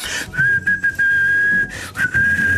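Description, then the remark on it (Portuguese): Someone walking around a house whistles a loud, steady, high-pitched note, held long, then briefly broken off and resumed, as if to make a key-finder keychain respond. No one speaks. “Bom, com os porta-chaves que dão sinal de vida, a pessoa anda ali pela casa”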